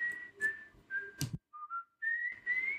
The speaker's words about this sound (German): Der Kannibale? Aber der pfeift doch ganz anders.